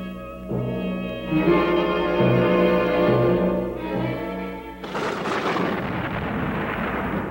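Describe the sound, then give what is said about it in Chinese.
A sustained, brassy tonal chord, a very loud horn blast, plays for several seconds, then gives way to a loud, continuous rumbling roar of thunder on a mountain, amid lightning and thick cloud, on a morning, carrying on to the end, with no voices. “到了第三天的早晨，在山上有雷轰、闪电和密云，并且有很大的号角声。”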